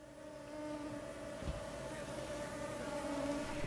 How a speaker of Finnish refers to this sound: Onko nämä jotain avaruusolentoja? Ei kyllä. Tässä on ihan kysymys nyt kuule sääskistä.